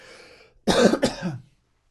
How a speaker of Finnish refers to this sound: yksi yskäsy tähän väliin ja sitten mennään